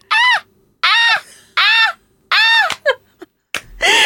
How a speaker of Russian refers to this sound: Или, или, звук, так или, или звук чаек.